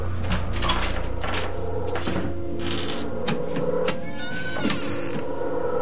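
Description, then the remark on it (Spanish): A room door opens: a series of sharp clicks and knocks from the handle and latch, then a thin, squeaky creak as it swings, with no one talking. “Abre la puerta de la habitación.”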